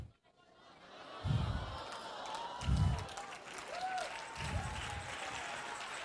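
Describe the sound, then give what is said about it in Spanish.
A church audience applauding the Lord: a steady wash of many hands clapping with crowd noise beneath, punctuated by three heavy low thumps at roughly even intervals. “Ay, no dele mejor ese aplauso al Señor.”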